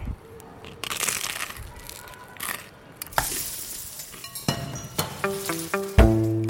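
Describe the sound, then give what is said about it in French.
Crunchy bites into the crust of a Fantasia pizza, eaten on a small balcony: a run of crisp, crackling crushes over several seconds, ending in louder rhythmic chewing crunches with a faint hum of voice at the end. “La, croûte est bien croquante, comme j'aime.”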